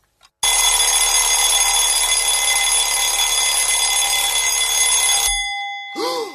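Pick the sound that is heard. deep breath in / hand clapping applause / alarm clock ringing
alarm clock ringing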